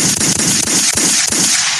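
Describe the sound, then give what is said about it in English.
A rapid string of about five loud gunshot sound effects, sharp cracking bangs at uneven intervals over a dense, hissing backdrop, with no one talking. “too many gunshots.”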